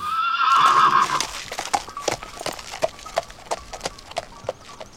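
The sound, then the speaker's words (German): A large, completely black, strong work horse (not a riding horse) gives a loud, quavering whinny, then its hooves clip-clop in a steady, even rhythm on a hard surface for several seconds. “war ein großes, schwarzes Pferd, also komplett schwarz, von den Augen bis Fellfarbe, alles in schwarz.”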